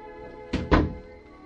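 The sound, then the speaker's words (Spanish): A door swings shut with two quick, solid thuds close together, the second slightly heavier, as a man who has just come in closes it, against a quiet background with no voices. “y la cerró.”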